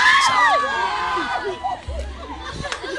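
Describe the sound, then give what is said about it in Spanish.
A young girl wails in high, wavering cries after falling into a swamp while swinging across it on a rope, amid a noisy outdoor crowd, with other voices chattering, shouting and laughing around her. “Se puso a llorar, escucharon el llanto al final, ¿no?”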